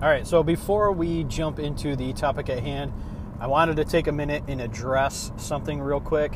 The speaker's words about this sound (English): Uh, if you hear in the background a humming noise, uh, that is because I am driving right now. I spend an awful amount of time on the road.